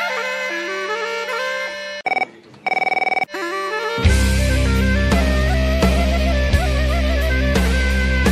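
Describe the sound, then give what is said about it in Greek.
A telephone rings with a bright electronic ringtone, its pulsing tones clear, before full, loud music swells in and carries on to the end. No one speaks. “Κοιτάξτε, παίρνει ο, ο κύριο Αυγολέμονο τηλέφωνο.”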